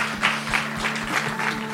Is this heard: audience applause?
yes